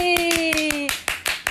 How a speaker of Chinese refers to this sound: 掌声鼓励！